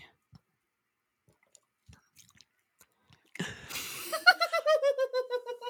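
Close-up drinking of a drink made from cut strawberries, mint, lemon peel, red wine vinegar and soda water: after a few faint clicks in near silence, a sudden wet burst gives way to a quick run of rhythmic gulps and swallows right at the microphone.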